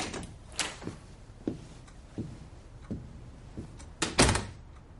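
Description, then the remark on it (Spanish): A door is opened and shut: a series of soft knocks and clunks, then a sharper, louder bang of the door closing near the end. No one speaks. “Le da los documentos y se dirige a la puerta.”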